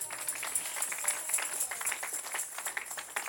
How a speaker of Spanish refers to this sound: Denle un aplauso a la palabra de Dios.